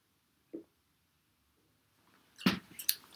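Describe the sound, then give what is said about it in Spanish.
Someone takes a sip of water: a soft faint sound, a second of quiet, then a sharp wet slurp and a quick clicky swallow, with no talking. “Traguito de agua.”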